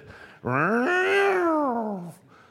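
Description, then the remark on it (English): A person's voice imitates a police car siren with one loud wail that rises and then slowly falls over under two seconds, with no other sounds around it. “I don't know what your cop car sounds like here. I don't know what the siren.”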